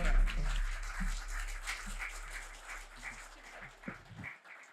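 An audience applauds steadily for several seconds, a dense wash of many hands clapping with no single rhythm, slowly thinning toward the end as a few low voices murmur underneath.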